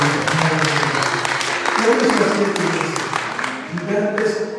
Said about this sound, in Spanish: Un aplauso.